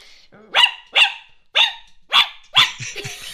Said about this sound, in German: Dann sagst du Hund? Ja, ja ich sag auch Hund.